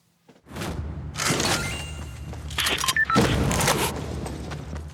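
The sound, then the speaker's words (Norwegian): Sound effects from the shooter video game Fortnite: loud, dense bursts of noisy impacts, booms and thuds layered over a low rumble, continuing without pause for several seconds with no one talking. “Lyden du hører her, kommer fra Fortnite, skytespillet som i løpet av 2018 har tatt over tronen som verdens mest populære spill.”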